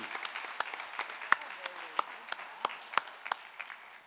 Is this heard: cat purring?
no